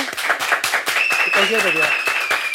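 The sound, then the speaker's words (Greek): A crowd applauds with dense, steady clapping throughout, joined midway by a sustained high whistle-like tone and faint voices murmuring underneath. “Ε, το θέμα είναι ότι τώρα έπρεπε να χειροκροτήσει λαό.”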